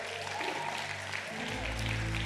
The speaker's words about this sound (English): Man, if you would, if you enjoyed that, if you would, clap your hands. Yep, it was it was good.